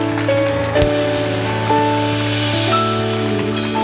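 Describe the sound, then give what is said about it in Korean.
A crowd applauds steadily, dense overlapping clapping filling the whole stretch, while sustained keyboard chords hold underneath; no one speaks. The applause is offered as glory to God. “우리 이 일을 행하실 저와 여러분을 통해서 우리 대학생 교육을 통해서 행하실 그 하나님 앞에 최고의 영광의 박수 돌리겠습니다.”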